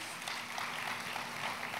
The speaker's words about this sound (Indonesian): Tepuk tangannya pula yang paling meriah buat Tuhan kita. Lebih meriah lagi buat Tuhan kita.